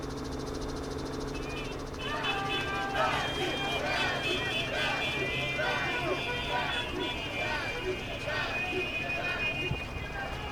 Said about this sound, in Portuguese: Você ouve que tem muitos gritos